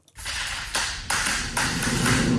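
Tiles tapping into place in an e-Unic modular loose-lay tile system: four crisp taps about half a second apart, each leaving a steady scraping hiss underneath. No voices.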